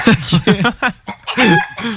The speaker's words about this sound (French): parce que j'ai téléchargé de quoi qui s'appelle Chicken Sound Effect. Et j'aimerais juste savoir ça ressemble à quoi.